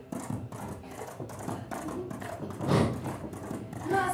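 Steady, rhythmic galloping hoofbeats of a reindeer running at full speed across a snowy landscape with a rider on its back, thudding in an even pattern with a louder surge midway and again at the end, with no talking.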